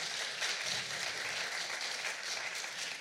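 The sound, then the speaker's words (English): A crowd of people who joined at All Saints applauds themselves, a dense wash of many hands clapping together at an even, fairly loud level with no pauses, sustained for a few seconds. “You'll have to applaud yourself.”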